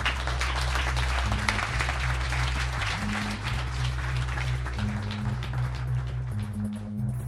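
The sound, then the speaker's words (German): An audience applauds after a speaker's closing words at a live talk, steadily throughout, a dense wash of many hands clapping at a fairly even loudness, with a low, sustained musical tone or hum running underneath. “Das wäre mein Schlusswort zum Sonntag. Applaus”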